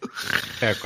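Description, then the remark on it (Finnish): A dog lets out a short, rough growl, a low rumbling burst near the end of a brief, noisy moment, moderately loud. “Toi on niin vitun kriipiä, kun toi murisee tonne.”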